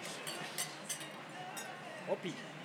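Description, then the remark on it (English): Several quick, bright clinks of beer glasses knocking together in a toast with the Comrade Superpower beer, spaced irregularly over a low murmur with a brief voice near the end. “All right. Cheers. Cheers. Cheers.”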